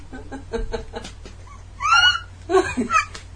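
A dog whimpers and whines in a few rising, high-pitched bursts, with softer snuffling sounds before them and a low background hum.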